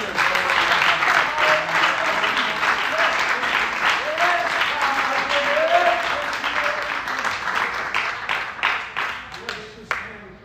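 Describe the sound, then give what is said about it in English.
An audience claps their hands in a dense, sustained burst of applause with faint voices mixed in, thinning out near the end into a few scattered, separate claps. “Clap your hands.”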